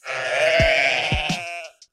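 A single long, wavering sheep bleat, loud, with a nasal buzzing tone and a few soft thumps underneath, ending in a brief click.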